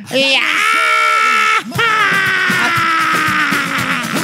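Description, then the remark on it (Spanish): A person lets out a loud, shrill scream, holding it for over a second, then breaking off briefly before launching into a second long, strained scream. “Esa fue la única que gritó”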